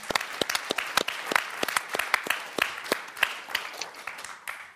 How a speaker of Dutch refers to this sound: Ehm, graag een hartelijk applaus voor beide sprekers.